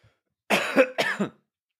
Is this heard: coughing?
yes